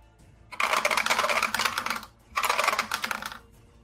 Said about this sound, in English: Twelve. Twelve points. For all that dice noise, that was unimpressive.